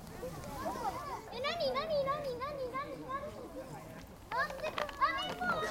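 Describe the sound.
High-pitched voices of young children chattering and calling out over one another, lively, with bursts of excited babble throughout.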